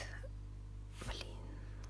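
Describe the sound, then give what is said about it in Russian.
A single sharp tongue click made by a woman sounds midway through, loud against a steady low electrical hum, with faint breathy noise around it and no clear speech. “громко цокнула, сори.”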